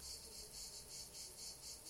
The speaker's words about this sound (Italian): Eh, ci stanno salutando le cicale. Eh, non so se si sente, ma...